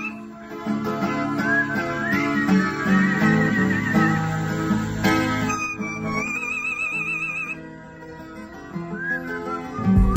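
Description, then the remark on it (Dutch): A pet named Tico sings along to a repeating guitar riff composed by its owner, its high whistling, warbling notes sliding and trilling above the steady plucked chords, with no talking. “En hier bijvoorbeeld zingt Tico op een zelfgecomponeerde riff van zijn baasje.”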